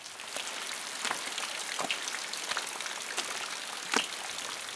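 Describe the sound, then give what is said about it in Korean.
Steady rain falls outdoors as a dense, hissing wash, sliding off a raincoat, with scattered louder drops tapping at irregular moments. There is no talking. “이렇게 비가 오는데 당장의 메뉴가 걱정이라니.”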